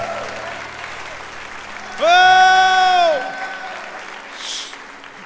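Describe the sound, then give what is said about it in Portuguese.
An audience claps steadily throughout in a dense, even wash of applause in worship of the Lord, while a single voice cries out a loud, sustained exclamation over it partway through. “Dê um brado ao Senhor e aplaudo neste lugar e adore.”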